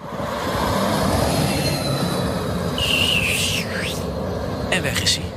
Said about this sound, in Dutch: Maar goed, hij rijdt rond op een testtrack in Fremont, waar ook eh, de fabriek van Tesla staat. En er zijn beelden vrijgegeven via Twitter. Ja. En dan hoor je dit.